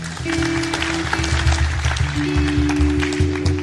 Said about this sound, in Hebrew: בבקשה במחיאות כפיים.